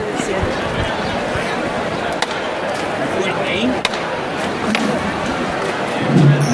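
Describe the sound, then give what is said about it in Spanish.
Three sharp, separate knocks from the hammer knocker of a procession float in Seville, signalling the bearers to lift it, ring out at irregular intervals over a steady murmur of crowd chatter and people talking. “Sí, está sonando el martillo”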